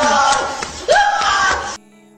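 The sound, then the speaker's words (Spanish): A voice lets out a loud, strained mock scream of suffering, a wailing cry that rises in pitch midway and holds for about a second before cutting off abruptly. “es otro tipo de grito de sufrimiento, no como el...”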